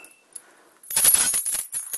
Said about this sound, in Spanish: Tengo las llaves y nos vamos.